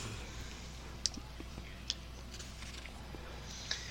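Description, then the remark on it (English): A cat gnaws at a microphone: soft scratchy rustling with three sharp, irregularly spaced clicks of teeth against the mic, over a low steady hiss. “Uh, the cat's trying to eat the microphone”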